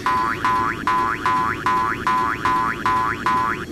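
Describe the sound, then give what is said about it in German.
A bright electronic boing-like video game sound effect repeats about eight times in a steady, fast rhythm, each with a rising pitch sweep, over a constant low buzzing background. “Und ich finde, der Sound klingt total nervig, ehrlich gesagt.”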